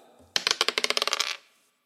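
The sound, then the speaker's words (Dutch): A die clatters across a hard surface in a quick burst of about a dozen sharp, bouncing clicks that speed up and fade as it settles, landing on two, with no talking. “Dus jij gooit even naar de dobbelsteen, let op.”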